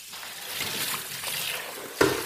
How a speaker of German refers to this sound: Also diese Induktionsfelder, die werden ja wahnsinnig schnell heiß. So. Man hört das auch, dass es hier schon schön brutzelt.